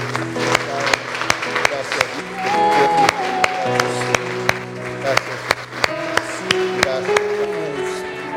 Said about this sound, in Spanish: Vamos a darle un fuerte aplauso a nuestro Cristo. Gracias, Dios.